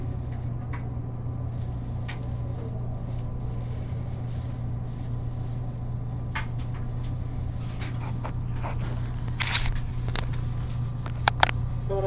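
Steady interior ambience of an 8-car West Kyushu Shinkansen bullet train travelling from Nagasaki toward Saga, Japan: a constant low hum and rolling rumble, with scattered faint clicks and rattles near the end and no voices.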